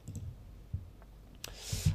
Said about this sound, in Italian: Allora, vediamo un po', scusatemi, ogni, sentite i click ogni tanto, non ci fate caso perché il mio...